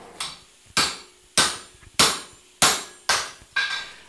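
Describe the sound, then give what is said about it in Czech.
A blacksmith hammers metal in a heated forge fired with black blacksmith's coal, making window handles for a granary near the small church at Chvojen near Benešov: seven loud, bright clangs in a steady rhythm about half a second apart, each ringing briefly before the next blow. No one speaks. “jsme ve vyhřáté kovárně.”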